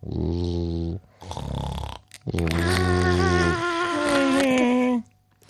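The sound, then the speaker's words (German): A voice imitates snoring as a tiny mosquito might: three loud, harmonic snore-like bursts, the last stretched out and gliding up into a whiny, buzzing tone before stopping. “Hast du schon mal eine Mücke schnarchen gehört? Nee. nee. Und wenn ja, hört sich das dann auch so an, so.”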